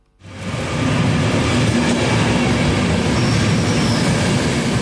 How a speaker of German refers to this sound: Jeden Morgen um die 7 Uhr kommt der Zug von Wien zu Buchs an. Sobald der Zug anhaltet, werden die Fahrgäste von den Grenzbeamten begrüßt und dann alle illegal Einreisenden aus dem Zug geführt.